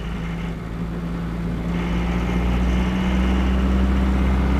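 A car engine idles steadily, a constant low rumble with a faint droning hum and no change in pace, and no voices over it.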